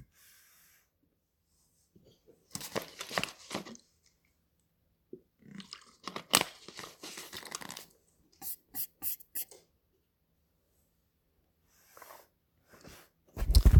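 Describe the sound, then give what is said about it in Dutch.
Someone sips water, with a series of short wet slurps and swallowing noises separated by pauses, then a sharp thump at the end. “Laat maar even weten in de chat neem ik even lekker een slokje water.”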